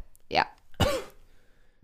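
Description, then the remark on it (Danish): Two sharp, breathy bursts half a second apart, fairly loud: a person sneezing and then coughing, then quiet. “Så vil du fortælle lidt mere om det, når du er færdig med at nyse og hoste?”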